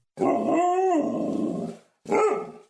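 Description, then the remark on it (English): A dog lets out a long, drawn-out bark with a wavering pitch, then a short second bark after a brief pause. It is loud, with no one talking. “Ain't that right, boy?”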